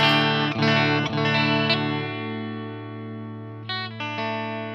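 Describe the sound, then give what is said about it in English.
Clean electric guitar chords from a Fender Strat ring out through a Laney Lionheart amp set as clean as possible. Several strums in the first two seconds are left to sustain and fade, then a couple more strums come near the end. No voices. “So this is uh, my clean guitar signal. I'm just using a Fender Strat into Danny's Laney Lionheart clean as it comes.”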